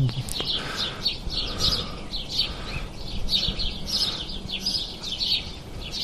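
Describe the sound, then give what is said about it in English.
A flock of house sparrows chirps busily and continuously in a spruce tree in a backyard at 5:30 in the morning on May 1st, about 25 minutes before sunrise, many short overlapping chirps over a soft, steady outdoor rumble. “whole bunch of house sparrows in my spruce tree.”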